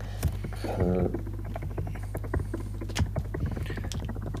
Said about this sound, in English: I hope your microphone's picking up the uh, sound of you typing because it sounds so good.